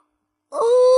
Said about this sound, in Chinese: 这时，妮妮打了个大哈欠，他觉得很困。